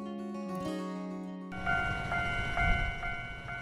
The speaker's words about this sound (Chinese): 民雄火车站旁的这间书店，每天都会听到当当当的火车平交道声，仿佛预告着开往读书人上流社会的人生特快车即将进站。